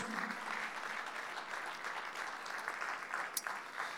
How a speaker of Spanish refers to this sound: Un fuerte aplauso al Señor, por favor, un fuerte aplauso a nuestro Dios.